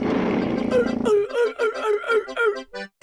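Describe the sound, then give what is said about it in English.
A person imitates a sea lion with a loud, growly vocal burst followed by a rapid series of barking, honking calls, alone, with no other talk. “big fish, oh, bigger fish, and suddenly a sea lion.”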